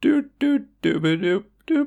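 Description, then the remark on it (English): A voice sings five short, bright syllables in a bouncy rhythm, mimicking an intro jingle with the mouth, fairly loud with brief gaps between notes. “That's the sound of the jingle that happened.”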